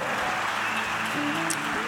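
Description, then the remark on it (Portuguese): A crowd applauds a team steadily throughout, a dense, sustained wash of clapping with faint voices and cheers mixed in beneath it. “Um, let's give this amazing team a huge hand.”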